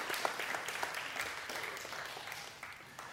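A crowd applauds with steady, dense clapping for about three seconds, a broad crackling wash that holds even and then tapers slightly toward the end.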